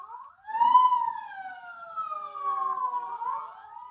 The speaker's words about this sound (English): Sirens, state police, militia, all roads blocked off.